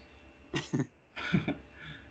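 Two short bursts of coughing, each a quick double hack, fairly muffled, as someone tries to hold them back. No one speaks.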